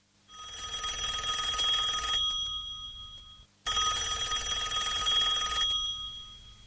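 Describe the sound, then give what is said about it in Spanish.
A mobile phone rings in two long bursts separated by a short pause, a bright electronic trill with many high tones, fairly loud, with no one talking over it. “¿no podrías apagar ese móvil o dejarlo en silencio? No nos podemos concentrar si suena cada poco.”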